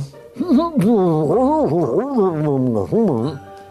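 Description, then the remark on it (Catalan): A voice mumbles with the mouth shut, making muffled, rising-and-falling humming sounds for about three seconds, fairly loud, with no clear words. “A veure, llop, obre la boca, que si no, no sé què dius.”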